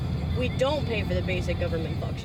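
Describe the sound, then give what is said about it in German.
Steady low road and engine rumble from inside a moving car, continuous throughout, with people talking about politics over the drone. “Hier waren wir gerade zusammen im Auto unterwegs”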